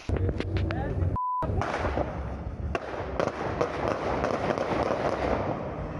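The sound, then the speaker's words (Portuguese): A rapid burst of sharp gunshots, at least 10 shots in all, cracks outdoors at a police checkpoint in Brasília, Brazil, as a white car flees, followed by a few scattered shots amid rumbling street noise and indistinct voices, with a brief electronic beep cutting in early on. “Foram pelo menos 10 tiros.”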